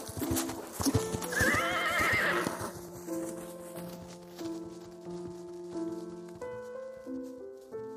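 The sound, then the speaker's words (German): A horse neighs loudly near the start amid rapid clip-clopping hooves, then the hoofbeats fade as sustained musical tones take over in the background. No one speaks. “Seit dieser Zeit soll der Kapfelnder Reiter, weil er keine Ruhe findet, bei Nacht im Kapfenharz und den angrenzenden Fluren herumreiten.”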